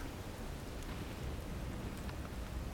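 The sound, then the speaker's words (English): Steady, dense rain hisses throughout while a low, continuous rumble of thunder rolls beneath it, the whole storm sounding unbroken with no voices. “No, but the next roll of thunder, you hear it.”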